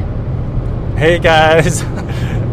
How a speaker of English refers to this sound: actually driving through the Rocky Mountains as we speak, which is why you might hear a little bit of driving noise in the background. Oh yeah, you're gonna, you're definitely gonna hear some noise.